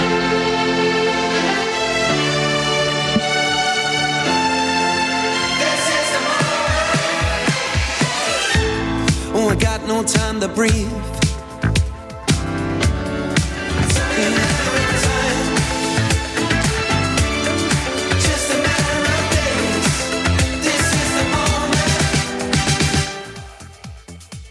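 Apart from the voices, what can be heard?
pop song single playing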